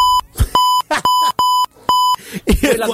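A series of about five loud, sharp electronic beeps at a steady pitch, unevenly spaced, with bursts of voices and chatter in the gaps between them.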